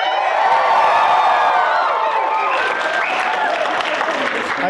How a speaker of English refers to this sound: people from Life, the Universe, and Everything here at Brigham, Brigham Young University, um, recorded in front of a live studio audience. Everybody scream again